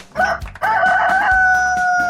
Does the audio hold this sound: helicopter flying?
no